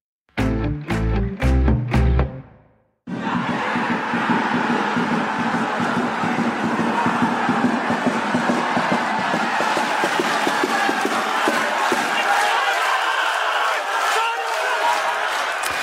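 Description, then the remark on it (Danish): Sønderjyske football fans at their home stadium in Haderslev, during the cup semifinal against Horsens, open with a few rhythmic, chanted bursts, then break into a loud, sustained roar of cheering that carries on steadily to the end. “Det her, det er lyden fra øh, Sønderjyskes øh, semifinal i pokalturneringen mod Horsens på hjemmebane Hederslev.”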